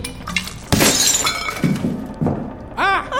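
A glass decanter is smashed into a man's face, a loud sharp crash followed by scattered tinkling shards, then a brief strained vocal sound near the end.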